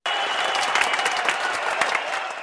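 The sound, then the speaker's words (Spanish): A steady applause sound effect played by a show's production crew, a dense wash of many hands clapping at a constant loud level for a couple of seconds with no speech over it. “Ay, ahí me ponen unos aplausitos, producción, por favor.”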